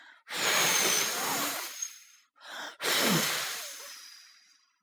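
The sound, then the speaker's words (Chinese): Hard, breathy blowing imitated by a voice, as the big grey wolf blowing at a wooden house: three loud whooshing gusts of air, a long one, a brief puff, then another long blast, with no speech. “大灰狼对着木房子呼呼的吹气”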